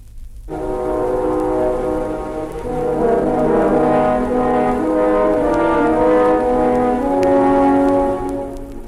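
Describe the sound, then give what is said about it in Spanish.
Three French horns of an orchestra play the severe, sombre theme of the villainous wolf in the tale of Pedrito and the wolf: a dark, ominous theme in loud, sustained low chords that swell slightly and hold steady for several seconds, with no voices present. “lobo villano, los tres cornos, severos y sombríos.”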